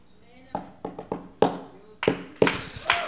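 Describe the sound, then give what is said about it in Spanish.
Sharp knocks like rapping on a door, about seven of them in uneven clusters, moderately loud, with a slight ring after each strike. “El que está enamorado del Señor Jesucristo nada más oye, ya conoce el toquido, solo oye.”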